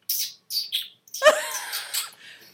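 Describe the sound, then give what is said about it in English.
A person whistles a bird impression: three short, high chirps, then a longer warbling trill with sliding, fluttering pitch, all sounding alone without any talking. “I love doing animal impressions. I, You're I'm, very I'm good, good at, at do, them. I can do.”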